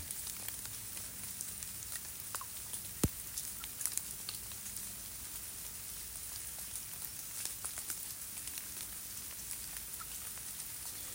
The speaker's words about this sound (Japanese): でその木の下にはあの枝葉に集まった水滴が大粒になって出てくるので落ちてくるので木の下はその大粒の波紋がいっぱい広がっていますね。